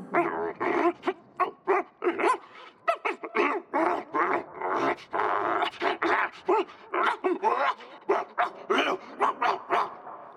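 A dog barks in quick, repeated bursts mixed with high, whining whimpers and yips, loud and continuous for about ten seconds with no talking.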